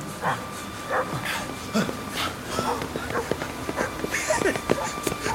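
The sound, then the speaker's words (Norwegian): A watchman's guard dogs bark in quick, irregular bursts, loud, with occasional yips and whines mixed in over a faint steady hum. “Vaktmannen har jo bikkjer.”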